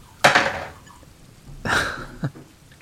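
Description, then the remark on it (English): Dice clatter across a tabletop in a sharp burst that rattles away, then after a pause a second tumbling clatter ends in one last small tap. No one speaks. “I'm gonna roll the dice.”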